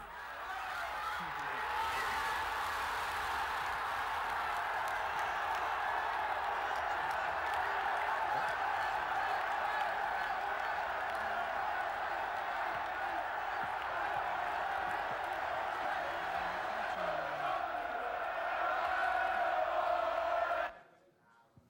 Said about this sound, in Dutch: Al vroeg in de eerste helft kunnen de supporters juichen. 1-0 Kieprich.